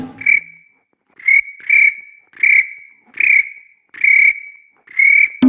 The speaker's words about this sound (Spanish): El grillo, el grillo.